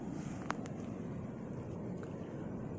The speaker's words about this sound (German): schließ einmal kurz deine Augen, höre auf das Meer, vielleicht hörst du es rauschen